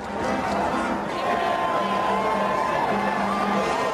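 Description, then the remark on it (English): A large crowd in New York and Washington cheers and chants, celebrating news about al-Qaeda leader Osama bin Laden. A dense roar of many voices with rhythmic shouted chants rising and falling, steady and loud throughout. “It was the news Americans waited 10 years to hear, and in New York and Washington, the crowds came out to celebrate.”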